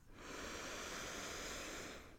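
A long, steady breath drawn in through the nose to fill the chest and belly, a soft airy rush that swells quickly and holds for about two seconds before easing off. It is quiet, with no talking.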